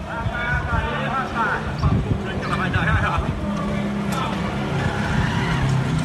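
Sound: motorcycle engine running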